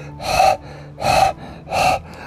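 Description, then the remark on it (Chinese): A little dog sitting with its tongue hanging out, panting heavily after running back and forth barking: three loud, breathy huffs in a steady, slow rhythm, each a rough rush of air with short pauses between, and no talking. “后来呢，小狗退了好远好远，坐下来，把舌头啊挂在嘴的外面，喘着大气，”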